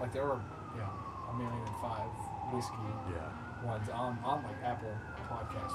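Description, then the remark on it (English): A wailing siren slowly rises and falls in pitch throughout, steady and moderately loud in the background outdoors in Birmingham, while people keep talking over it. “excuse the siren in the background.”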